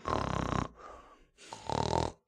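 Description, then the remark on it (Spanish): A person imitates the loud snoring of a heavyset friend with their voice: two rough, buzzing snore sounds, strong, separated by a quieter, raspy breath in between. “Hay siempre un gordito que es buena onda, cae chido el gordito, pero ronca de no mames.”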